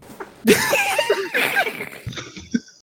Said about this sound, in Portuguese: Ai, me engasguei, cara, com a piada aqui.